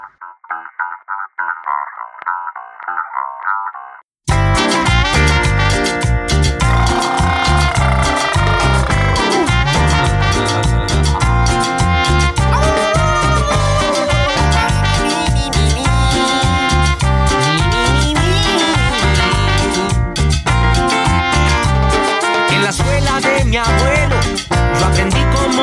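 A recorded song plays at full volume for most of the stretch, dense and rhythmic with strong bass and bright instrumentation, after a brief quieter, band-limited intro of a few seconds.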